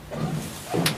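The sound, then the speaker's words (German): Elevator doors slide open at floor minus one with a low mechanical rumble that swells toward the end, topped by a brief bright hiss, without any talking. “Türen öffnen.”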